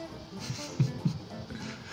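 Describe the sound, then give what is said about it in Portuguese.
A cat named Bolha growls in low, rumbling bursts, with two sharper throaty pulses close together partway through, not loud. “Eu, eu, vou tentar acalmar o gato.”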